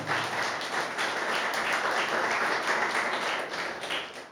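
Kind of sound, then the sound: crowd, audience applauding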